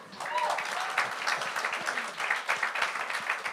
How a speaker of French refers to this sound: Par contre, ça va super bien entre nous, puis on la salue, et juste ici, on la salue, on l'applaudit.